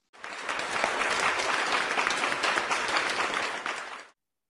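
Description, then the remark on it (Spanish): A crowd applauds Kat Jennings steadily for about four seconds, a dense wash of many hands clapping at even loudness before it cuts off abruptly. “Así que queremos oír un aplauso para Kat Jennings.”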